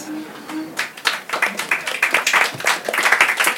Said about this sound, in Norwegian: Applaus, folkens!